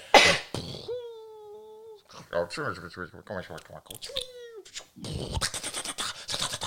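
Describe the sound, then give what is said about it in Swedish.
A person vocally mimics war sounds of a Taliban attack: descending whistles of falling bombs, each followed by a rapid burst of rattling gunfire noises, fairly loud, with no other talk. “Du gör alla dina ljud själv och du gör alltid dem lite för länge.”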